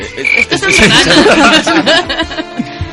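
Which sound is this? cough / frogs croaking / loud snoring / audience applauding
frogs croaking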